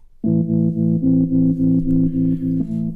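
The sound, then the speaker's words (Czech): A sustained, heavily effected Hammond organ chord swells in and pulses in a slow, steady throb, thick and distorted with a warbling chorus shimmer, playing alone as a moody trip hop song intro. “No a hnedka vlastně v úvodu slyšíte jasný hemontky.”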